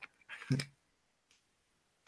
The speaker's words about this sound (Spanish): esas personas que cuando están comiendo una botana, digamos, unos fritos, pues cuando ya se la acabaron, se toman la molestia o de empezar a, a lamer la bolsita, ¿no? Así como esta. Ándale.